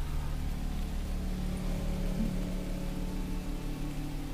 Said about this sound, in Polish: będziesz zmieniał pogodę, to mi mów, to ci będę deszczyk włączał albo takie inne.